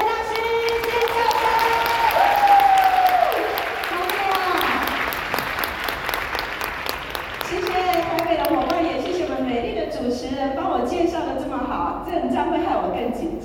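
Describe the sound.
A large audience applauds steadily and loudly to welcome the keynote guest speaker, a dense wash of clapping that eases slightly midway then swells again, with scattered voices and tonal sounds riding over it.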